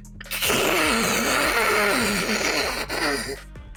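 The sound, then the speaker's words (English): During a tabletop role-playing game, the game master imitates with their voice a long, loud hiss coming from a mouth on a character's glowing skin, a raspy, breathy sound with a slight throaty growl underneath, lasting about three seconds before cutting off. “Uh, Mar- Marcel's skin begins to glow and the mouth uh, begins to emit a hissing noise.”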